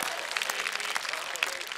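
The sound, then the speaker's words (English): A crowd sitting outside in a field on a 45-degree day applauds with dense, steady clapping from many hands, fairly loud and continuous throughout, with a few sharper individual claps standing out and no talking. “Why don't we give each other a round of applause for actually being brave enough to show up outside in a field when it's 45 degrees?”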